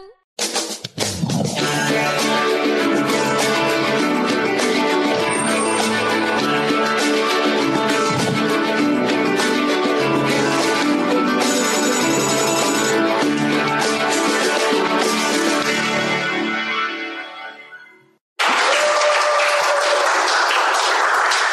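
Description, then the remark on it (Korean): A loud crowd cheers and applauds over bright music, the roar sustained for about seventeen seconds before fading away, followed by a short burst of tonal chimes. “함성 소리가 갈수록 작아지는 것 같아요.”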